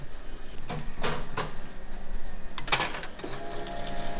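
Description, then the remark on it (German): An Eversys espresso machine brewing an espresso from a blend of Guatemalan, Kenyan and Brazilian beans: a series of sharp mechanical clunks and short whirring bursts over a steady low hum, with a louder hissing burst near the end. “Eversys hat sich vor zwölf Jahren das erste Mal auf Espressomaschinen spezialisiert.”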